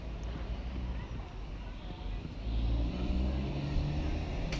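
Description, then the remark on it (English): An enormous lorry drives past around the corner, its deep engine rumble steady and swelling louder partway through, with outdoor wind noise around it. “There's an enormous lorry driving over there, around the corner.”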